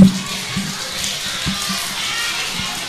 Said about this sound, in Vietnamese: rồi cảm ơn các con cho một tràng vỗ tay thật là lớn nào